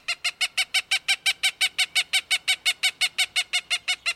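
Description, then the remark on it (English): A Cooper's hawk gives its rapid cackling call, a steady run of about twenty harsh, nasal notes at roughly five per second, loud with no other sounds. “Urban Cooper's Hawks”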